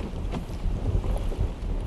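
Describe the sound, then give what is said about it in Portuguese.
Strong wind buffets the microphone in a continuous low rumble with gusty swells, loud, with no voices, at a seashore with coral and turquoise water as the tide goes out. “Embora esteja ventando bastante, né?”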